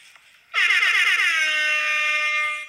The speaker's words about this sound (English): Let me let me play my air horn again, please. Let me play it one more time.